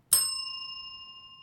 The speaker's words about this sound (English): Where's the bell? I rang it. You don't hear it through Zoom.